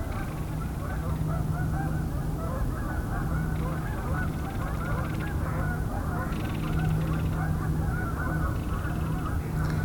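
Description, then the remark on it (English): A large flock of about 300 Canada geese honks nonstop while coming in to land about a kilometer away, dozens of overlapping calls merging into a dense, steady chorus, with no voices present. “So that was about 300 Canada geese coming in.”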